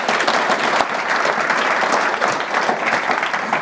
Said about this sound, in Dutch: Even een applaus